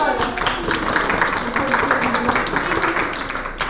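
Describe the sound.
An audience bursts into steady applause, a dense crackle of many hands clapping at once that holds at an even loudness for a few seconds, with some voices mixed in.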